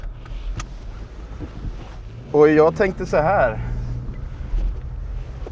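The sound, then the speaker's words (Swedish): A steady low engine rumble and muffled wind noise fill the cabin of a moving car driving out to a horse pasture, continuing throughout while a man speaks briefly near the middle. “Och då sitter jag här i …, …s bil”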